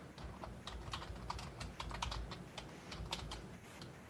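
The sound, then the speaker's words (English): Rapid typing of a movie's name on a computer keyboard, a steady flurry of crisp key clicks with irregular rhythm and no voices, continuing for several seconds. “Typing the name.”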